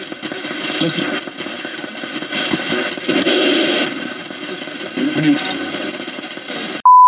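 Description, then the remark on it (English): Choppy radio sweep static from a spirit box hisses and stutters loudly for several seconds, with brief voice-like fragments flickering through, then cuts off into a short, steady electronic beep. “After a bit of static, JD thinks he can hear, it's me.”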